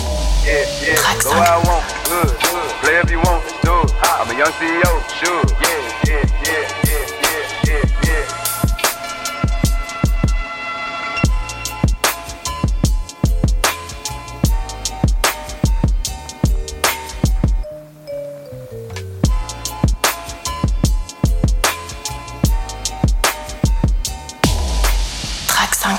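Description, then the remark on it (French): A groovy synth-driven track from a musician's latest project, the only one on it built on a sample, plays loud and steady, with punchy regular beats, bright melodic synth lines, and a brief drop near the end before the groove returns. “Je vous propose qu'on écoute tout de suite un extrait”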